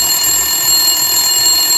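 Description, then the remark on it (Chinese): A telephone rings with a shrill, steady electronic tone that holds loud and unbroken for the whole moment, with no voices over it. “他响了，电话真的响了。”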